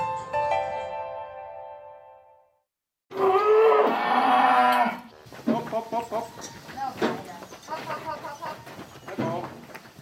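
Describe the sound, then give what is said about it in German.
Caramel-colored cows moo loudly and impatiently in a barn on a sunny morning, two long drawn-out calls in quick succession, followed by a person speaking over faint barn background. “Karamellfarbene Kühe stehen im Stall. Muhen ungeduldig.”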